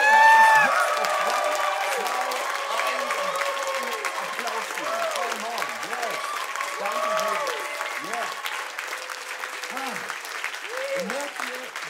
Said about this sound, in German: Und dann lass uns einfach mal ganz kurz einen richtig, richtig lauten Applaus für unseren Jesus geben.